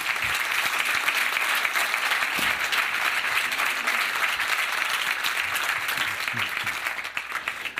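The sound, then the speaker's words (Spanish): Sustained applause from an audience of parents clapping for their children, a dense wash of many hands clapping at steady volume for several seconds, tapering slightly toward the end. “Miren a sus hijos. Denle un aplauso.”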